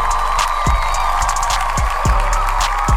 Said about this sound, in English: Thank God for my handy dandy backpack full of tools. Okay. I give a round of applause for the tools.